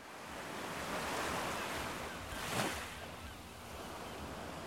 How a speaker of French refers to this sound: C'est fou, j'entends déjà la mer rien que d'y penser.